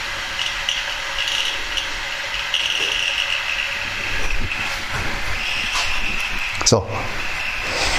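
An electric kettle heating water, giving a steady, continuous hiss over a low churning rumble that holds throughout, with a brief sharper rattle or knock near the end.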